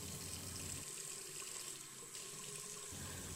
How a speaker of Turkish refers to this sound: Neyse hadi ben de hızlıca bir duş alıp geliyorum hemen.